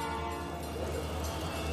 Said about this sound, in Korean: 가게는 역에서 멀지 않아 열차가 지날 때마다 경적이 잘 들렸다.